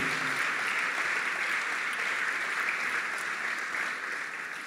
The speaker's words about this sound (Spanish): Dale un fuerte aplauso al Señor. Si lo crees, apláudele fuerte al Señor.